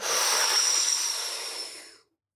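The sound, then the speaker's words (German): A single long, deep inhalation into the belly during a breathing exercise, an airy breathy rush lasting about two seconds that gradually tapers off before stopping abruptly, with no talking. “Also ich atme jetzt mal in den Bauch”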